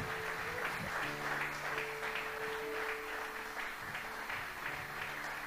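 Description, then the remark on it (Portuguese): A crowd gives a loud round of applause to God, clapping steadily throughout, a dense wash of clapping, with sustained low keyboard or organ notes humming underneath. “Eu quero louvar o nome do Senhor e pedir que você dê um forte aplauso ao nosso Deus.”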